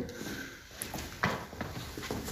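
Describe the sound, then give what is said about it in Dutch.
Footsteps walking at an unhurried pace back to the main room, a handful of soft, irregular steps over faint background hiss, with one slightly louder scuff partway through. “Dan lopen we terug naar de, naar de hoofdruimte, ja.”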